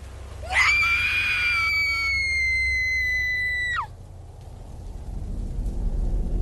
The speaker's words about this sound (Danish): Hendes blik følger blodsporet op ad flagstangen, og synet, der møder hende, får hende til at udstøde et øredøvende skrig.